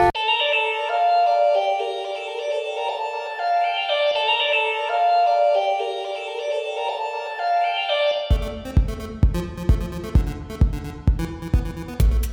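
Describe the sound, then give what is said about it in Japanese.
A school chime rings out a slow melody of sustained, bell-like notes that step up and down in pitch, then gives way to a rhythmic, pulsing music track. No one speaks. “あーチャイム鳴っちゃった”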